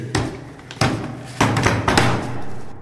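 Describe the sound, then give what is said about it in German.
A rapid series of heavy bangs as all the doors and windows of the Frauenkirche church slam shut one after another, about five loud thuds over a few seconds, each with a short rattling tail. “Doch plötzlich, und wie aus heiterem Himmel, schließen sich alle Türen und Fenster.”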